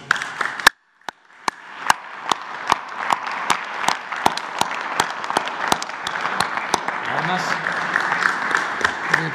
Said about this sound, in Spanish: a ver, miren, a todos los, todos los deportistas, todos, todos, todos, todos, todos, todos. todos todos, un aplauso, ¿no? Un aplauso.